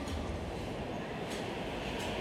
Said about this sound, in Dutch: Ik haal Steven op bij het station waar hij aankomt met de hoge snelheidstrein